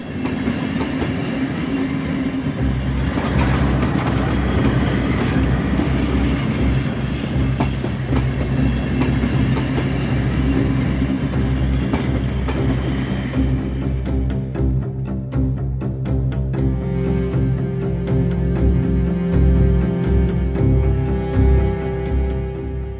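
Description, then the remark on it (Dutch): A train leaving Roermond and passing Geulen rumbles steadily along the rails, its low roar carrying a rhythmic clickety-clack of wheels over track joints, with hissing noise that thins out partway through. “Zondag 28 september 1892 vertrekt vanuit Roermond een trein.”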